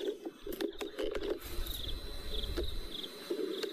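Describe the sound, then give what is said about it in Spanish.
Crickets chirp in short, regular bursts a few seconds apart, over a low background rumble with scattered sharp clicks early on. “No, es falso, solo los grillos grillan de forma natural.”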